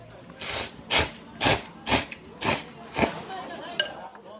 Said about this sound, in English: I just put the phone on the table, and uh, the person who sat at the table next to me was uh, slurped his ramen loud enough to record it on my phone.